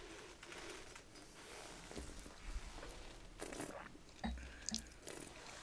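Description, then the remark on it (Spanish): Quiet mouth noises: a small slurping sip of wine, then soft wet swishing as the wine is passed around the whole mouth, with a few faint clicks and no talking. “A tomar un sorbo pequeño se pasa por toda la boca.”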